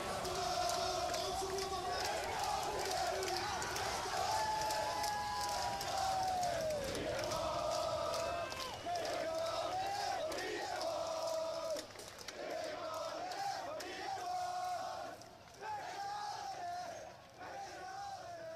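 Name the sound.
football stadium crowd chanting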